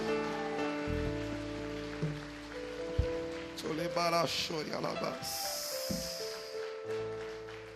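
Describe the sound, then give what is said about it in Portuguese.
A church audience applauds for the Lord during a service in a steady, dense wash of clapping that continues throughout, while a man's voice speaks over it partway through and a brighter hiss swells briefly near the end. “Melhor esse aplauso porque é para ele.”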